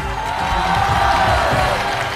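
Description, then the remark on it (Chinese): A studio audience of about a hundred people on the TV show Family Open Class (家庭公开课) applauds and cheers steadily to welcome a guest, a dense wash of clapping with scattered shouts and whoops, loud and continuous throughout. “接着各位热情的掌声和呐喊声，让我们一起来欢迎一下节目当中重量级的嘉宾”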